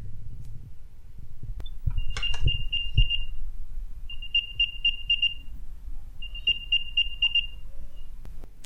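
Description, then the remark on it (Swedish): An AirTag locating chime, triggered by tapping a smartwatch to find a chosen item, plays as three short bursts of rapid, high-pitched chirping tones, evenly spaced a couple of seconds apart, over a faint low background rumble with no talking. “Så då klickar jag bara på klockan och väljer vad jag vill hitta och sen hörs det här ljudet.”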